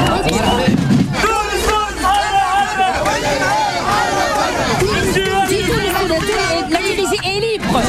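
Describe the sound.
A loud protest crowd shouts to denounce terrorism and Enarda, many raised voices overlapping in a dense, continuous roar with strained, chant-like cries rising above the mass.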